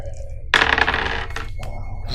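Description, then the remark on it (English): A sudden bright clatter of dice tumbling and rattling across a table, settling after about a second, with faint background murmur. “I'm gonna roll to see if I have experience.”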